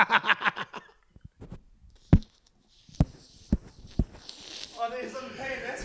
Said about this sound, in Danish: Ja, det var til hest.